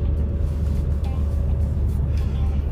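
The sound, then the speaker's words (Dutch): A steady low rumble of a car on the move at the roundabout before Warnsveld, going slowly behind a yellow roadworks truck with a crane and trailer; engine and road noise drone at an even level throughout, with a faint hum riding on top and no talking. “Ik zit achter zo'n geel... Eh, wegwerkzaamheden, vrachtwagen, kraan geval met aanhanger. Dat het schiet niet zo heel hard op.”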